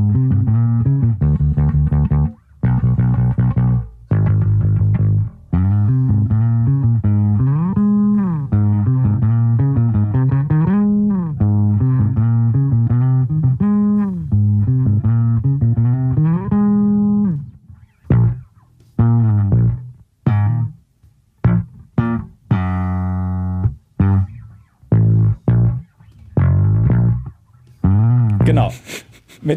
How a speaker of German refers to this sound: Und eine Sache, wo man mal das melodische Bassspiel äh, mit äh, Slides in hohen Lagen und so hören kann, äh, ist